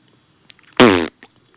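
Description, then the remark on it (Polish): A single loud, buzzing fart sound blown with the lips, lasting about a third of a second, alone with a few faint clicks around it. “I takiego bąka na tym e, puszcza, niestety.”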